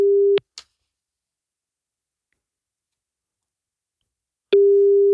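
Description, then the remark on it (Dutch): A telephone ringback tone during a call to Alfred Schuider: a steady, mid-pitched electronic hum cuts off, a soft click follows, then about four seconds of silence before the tone sounds again. “We gaan hem even bellen”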